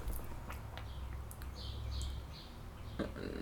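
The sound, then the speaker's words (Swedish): A bird sings outside an open window, a few short bright chirps and trills over steady low background rumble, with no one speaking. “den här fågeln förstör mycket”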